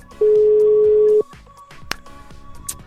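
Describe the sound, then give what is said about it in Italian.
A telephone busy signal on a call placed to a guitarist: a single loud, steady electronic beep lasting about a second, then only faint background noise and a couple of soft clicks. “È impegnato.”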